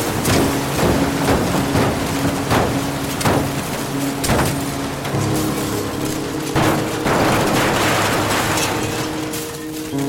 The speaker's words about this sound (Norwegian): Klokka 10.22 den 29. august 1996 dundrer flyet med de 141 menneskene om bord inn i det 968 meter høye Operafjellet. Flyet kvestes i to i der det treffer bakken i full hastighet.